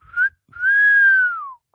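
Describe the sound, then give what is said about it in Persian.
A loud human whistle with no one talking: a short rising note, a brief pause, then a long steady tone that slides downward as it ends. “سوت بلندی زدم”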